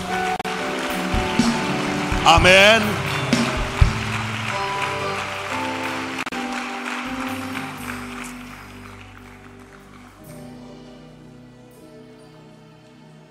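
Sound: audience applause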